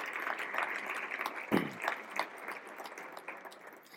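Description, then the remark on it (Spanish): Sustained audience applause for Raúl Torres and PLD Space, a dense crackle of many hands clapping at a steady moderate loudness, with a brief louder burst partway through, then continuing evenly. “Un nuevo, un nuevo aplauso, por favor, para Raúl Torres y PLD Space.”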